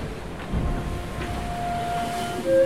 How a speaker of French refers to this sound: C'est assez impressionnant, il y a de la houle. La houle qui arrive par derrière, elle est, elle est haute. Hein. J'ai pas l'habitude de ça.